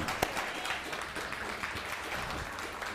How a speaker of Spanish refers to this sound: Un fuerte aplauso al bendito sea, por favor. Baruch Hashem.